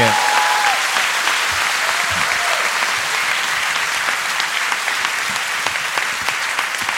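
An audience claps steadily throughout, a dense, even wash of many hands at a loud, constant level with brief faint vocal sounds early on.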